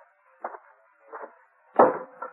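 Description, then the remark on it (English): Four sharp, woody chops of an axe cutting up a pile of kindling near a barn, spaced unevenly about half a second apart, the third blow the loudest, heard alone with no talking. “I saw somebody cutting up a pile of kindling over near the barn.”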